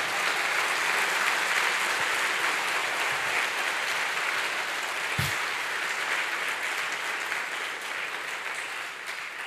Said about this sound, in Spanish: ¿Cuántos dicen amén? ¿Cuántos lo creen? Ahora sí, dele fuerte ese aplauso al Señor.